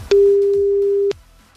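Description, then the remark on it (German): A single steady telephone line tone sounds for about a second after a number is dialed, loud, starting and stopping abruptly with faint background noise around it. “Wir probieren es mit der zweiten Nummer. Ich gebe die Nummer ein.”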